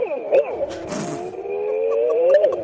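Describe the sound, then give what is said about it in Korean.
A voice in a voice-impression contest imitates a daegeum, a Korean traditional bamboo flute, with one long, wavering, breathy tone that bends in pitch and holds steady, fairly loud, with no other sounds behind it. “예, 일단 대금 지금 저 국악기 예, 맞습니다.”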